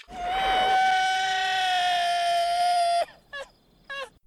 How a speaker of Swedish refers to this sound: Som sagt i den här filmen spelar han Killer, eller The Scorpio Killer. Mhm. Och han har ett fantastiskt, fantastiskt skrik.